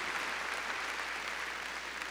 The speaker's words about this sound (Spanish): A ver, démosle palmas fuertes a este Dios que nos llena de misericordia.